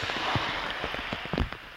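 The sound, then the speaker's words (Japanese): Steady, heavy localized rain in Noboribetsu and Shiraoi, Hokkaido, Japan, hissing across a hard surface, with scattered louder drops and splashes tapping throughout; no voices. “今日の道内は登別市と白老町で局地的な大雨となっていて登別市では午前11時までの12時間で94ミリの雨を観測しています”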